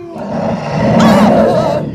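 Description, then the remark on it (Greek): A person growls out a loud, drawn-out imitation of a bear's roar while making a bear-shaped hand shadow on a wall, rising in the middle and sustained for about two seconds, with no other sounds. “Α! δείτε, δείτε, δείτε, ε, ένα αρκουδάκι.”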